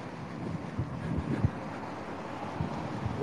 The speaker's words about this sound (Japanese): あ、風すごい。怖い。風怖い。風怖い。わあ、風が。風風怖い。